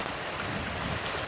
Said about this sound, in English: And this is the sound of the Merry Creek from Clifton Hill.